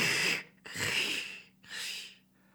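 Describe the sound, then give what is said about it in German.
Three rough, rasping breath sounds in a steady rhythm, fairly loud, as a voice imitates a rattling lung and the scratchy strokes of a street sweeper's broom. “Hörst du, wie meine Lunge rasselt, wie der Besen eines Straßenfegers?”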